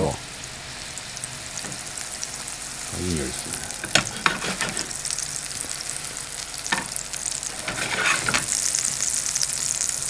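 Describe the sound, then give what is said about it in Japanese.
A thin ground meat patty, shaped like a hamburger patty, cooks slowly in a frying pan, a steady crackling hiss with scattered sharper pops and spits that swell slightly toward the end. No one speaks. “でこれをフライパンの中にドンとハンバーグみたいなんですねそうそうそうまあ、薄いハンバーグとまあ、ハンバーガーのパティみたいな感じで入れてもらえると普通ひき肉ガーッとこう混ぜてはいはいポロポロにするっていうかそぼろ状にしますねそうなんですよこれを、まあ、じっくりハンバーグみたいに焼いていくんですけど”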